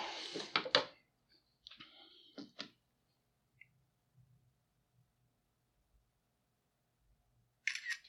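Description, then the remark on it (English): Several camera shutter clicks and mechanical whirs come in quick bursts as pictures are taken, separated by near silence and faint handling noises, with one more shutter burst at the end. “Some more pictures.”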